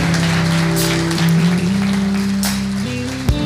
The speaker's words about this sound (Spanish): Vamos a darles un aplauso.